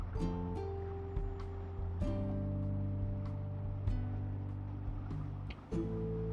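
A motorcycle engine drones steadily, recorded by the rider while riding, its pitch stepping up and down a few times as if shifting gears, with a rushing wind noise layered on top.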